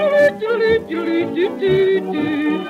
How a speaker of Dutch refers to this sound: Eerst de trompet, de klarinet